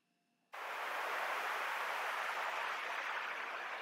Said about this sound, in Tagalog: Okay, ito yung tunog na pag nawawala ng signal yung TV.